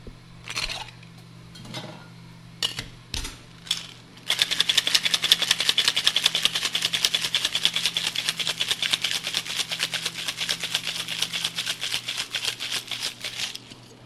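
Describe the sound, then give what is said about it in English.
A few scattered clinks and knocks, then a cocktail shaker rattles hard with ice in a fast, steady rhythm for about ten seconds, loud, under a low steady hum, as a citrus cocktail made with Creole shrub is shaken to mix and dilute it. “We really want to agitate all the citruses in here.”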